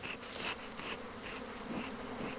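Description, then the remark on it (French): A dense, steady drone of many honeybees buzzing at an opened hive, a continuous hum with shifting overtones and no voices. “Au-dessus, oh, il y a un peu de miel, mais ça, c'est un rayon de couvain.”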